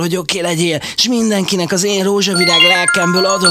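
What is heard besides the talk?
telephone ringing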